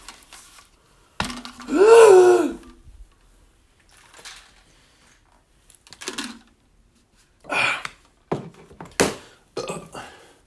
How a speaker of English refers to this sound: Oh, oh shit, I got the fucking hiccups. Ah, damn it.